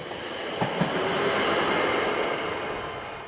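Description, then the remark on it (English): A train rumbles steadily along the tracks of a mountain route with a dense, continuous roar, broken by a couple of sharp clacks near the start. It sounds fairly loud, with no voices. “Under new management, trains kept chugging along the mountain route until 1940.”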